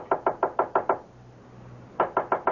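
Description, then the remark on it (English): Someone knocks firmly on a locked wooden study door: a quick run of six loud raps, a short pause with a faint low hum, then five more knocks in the same steady rhythm. “I I can't open the door. It's locked. Well, knock on it.”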